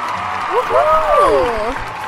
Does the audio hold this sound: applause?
yes